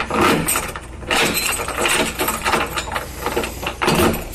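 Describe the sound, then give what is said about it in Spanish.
A door is handled and shut, followed by a series of metallic clicks and jangles like a key turning in a lock, fairly loud, with no talking. “cierra la puerta, a ver, espérame, déjame, déjame cerrar la puerta. Con llave y todo.”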